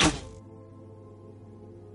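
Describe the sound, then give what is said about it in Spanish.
A single sharp, heavy thunk of an arrow striking a man in the nape of the neck, followed by a faint low hum that lingers and fades; no voices are heard. “A la primera flecha la clavé en la nuca y cayó al suelo sin un grito.”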